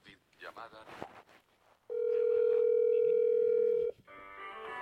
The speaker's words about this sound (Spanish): Y acá entra la llamada. Les voy a contestar para que vean.